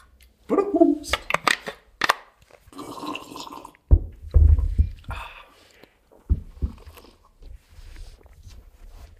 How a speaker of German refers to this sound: Hier, soll ich auch noch was einschenken? Na, komm, Zur Feier an. des Tages ein leckeres Wasser.